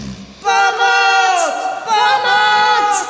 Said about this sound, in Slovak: Tie dve kričali z celej sily, ako len vládali.